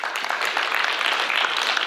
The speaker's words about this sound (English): Give him a hand clap and thank God for your ministry.